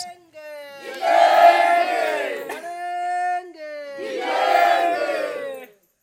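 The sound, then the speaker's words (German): A crowd of protesters, women and men sitting separately on a mat on the ground under a simple shelter of bamboo poles and a grass roof, shouts in unison against Adani: two loud surging chants with a sustained high call held between them, voices rising and falling together. “Auf einer Matte am Boden sitzen Frauen und Männer getrennt und schreien ihren Protest heraus.”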